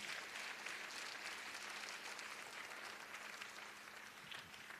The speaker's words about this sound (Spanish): Dele palmas al que vive y reina.